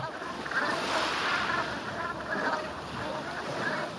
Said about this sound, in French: dans le fier d'Ars sur l'île de Ré. La marée monte depuis plusieurs heures et l'eau envahit doucement chaque recoin de la baie.